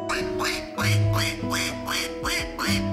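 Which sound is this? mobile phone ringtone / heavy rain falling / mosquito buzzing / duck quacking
duck quacking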